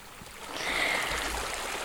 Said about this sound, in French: Un, dernier son que tu vas nous présenter, c'est le son de l'eau, que ce soit l'eau de la piscine ou du bain.